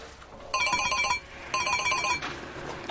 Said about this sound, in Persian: اسی بابا پشت تلفن جواب بده